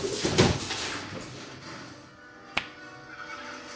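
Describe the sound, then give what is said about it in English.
Wooden rattling and knocking from a cupboard door being rattled by cats, a burst of clatter early on, then a quieter stretch and one sharp click, with no voices. “Those are my cats being assholes.”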